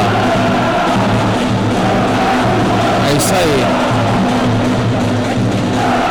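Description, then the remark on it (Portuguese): A dense, steady roar of fans cheering at Ginásio Greco in Ribeirão Pires, Brazil, during a two-minute timeout in a match. The cheering is loud and continuous throughout, with a brief spoken remark rising over the crowd noise. “Tempo parada de dois minutos, é hora do técnico falar, orientar o time, é hora também de tomar a famosa água e a torcida faz festa aqui no ginásio Greco, Ribeirão Pires”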